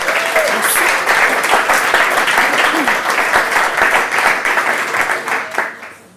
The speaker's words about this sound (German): Bitte um einen herzlichen Applaus für Clara Stoll.